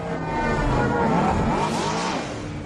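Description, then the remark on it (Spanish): A loud, continuous futuristic engine whine with sweeping, gliding pitch harmonics: the sound of flying taxis in a science-fiction film, passing by, with no talking over it. “así sonaban los taxis voladores en la película El Quinto Elemento”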